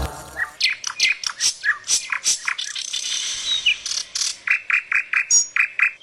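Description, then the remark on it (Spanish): A northern mockingbird (cenzontle) sings a rapid, varied string of bright whistles, buzzy trills and repeated chirps, clear with no voices, phrases shifting every second or so. “Canto de Sensuntles.”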